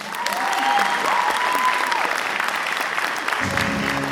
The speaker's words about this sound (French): Alors je vous demande un tonnerre d'applaudissements pour le premier invité Harry Potter de ce week-end, Monsieur Chris Rabin.